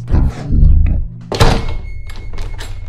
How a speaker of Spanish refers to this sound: todos escucharon que la puerta de la entrada se cerró de golpe